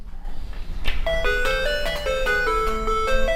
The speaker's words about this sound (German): Das ist ein Computerspiel, ein ganz frühes Tetris. Haben wir alle gespielt, bis zum geht nicht mehr, aber man hatte ja nichts anderes, viel mehr gab es ja nicht.